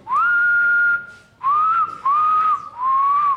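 Someone whistles a slow tune, close and fairly loud, in four drawn-out phrases with short breaks between them. The pitch wavers and sounds a little off-key.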